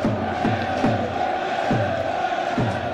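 Wrexham football fans behind the goal roar steadily throughout as Wrexham attack, a dense, loud wall of cheering with repeated rising chant-like swells rhythmically surging every second or so.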